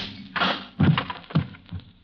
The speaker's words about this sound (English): So there was nothing for me to do but plant one right on his jaw.